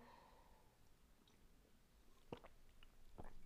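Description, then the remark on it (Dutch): Someone takes a quiet sip from a drink. Soft wet mouth clicks and swallowing sounds come in two brief bursts against near silence, with no talking. “Even een slokje drinken pakken tussendoor.”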